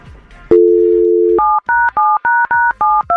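A telephone dial tone hums steadily for about a second, then gives way to a quick series of seven or so two-tone keypad beeps as a number is dialed, each short and evenly spaced.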